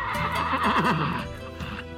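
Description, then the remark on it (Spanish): A horse neighs loudly, a single long, wavering whinny that rises and falls for about two seconds, with no voices present. “El caballo flamígero lanzó su grito de derrota.”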